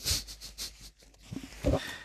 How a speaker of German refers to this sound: muss die ganze Zeit schnauben